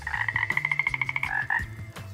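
animal, toad croaking

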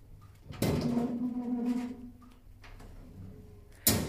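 household object, door opening and closing

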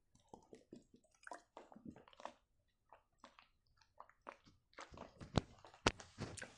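food or drink, drinking water

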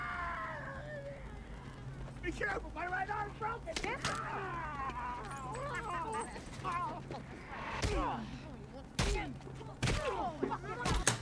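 impact, punches landing

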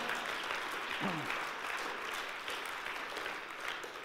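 crowd, audience applause

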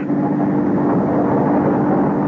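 vehicle, car engine running

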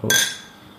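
household object, beer glasses clinking

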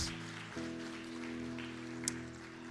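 crowd, audience clapping

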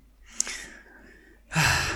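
human body sound, heavy breathing

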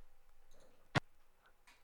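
machine, computer mouse click

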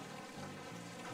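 nature, rain falling

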